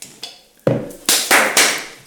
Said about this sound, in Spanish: Con un aplauso, siempre inicia con un aplauso.